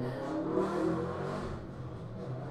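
A motorbike engine revs as it passes outside, its droning pitch climbing then easing off over a couple of seconds, fairly loud and steady with no voices.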